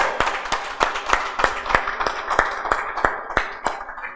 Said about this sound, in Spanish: Yo creo, hermano, que debemos darle un aplauso a nuestro Señor Jesucristo.